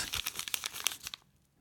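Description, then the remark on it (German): A small handwritten slip of paper, drawn as number one in a prize draw, crinkles and crackles as it is unfolded, a quick run of sharp, papery rustles lasting about a second before fading into quiet. “Mit Hand geschrieben, aufgebröselt.”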